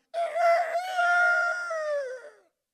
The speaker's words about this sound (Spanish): Tres veces lo negó. Cuando ya lo negó es que cantó el gallo.